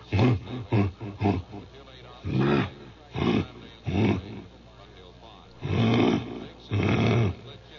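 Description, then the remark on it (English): A man's voice, with a little echo added, imitates the grunting of a wild lion: a rapid series of short, deep, breathy huffs, then several longer, louder rasping grunts spaced apart. “Yeah, I I was uh, in East Africa, and the first lion I came across was just grunting. He goes.”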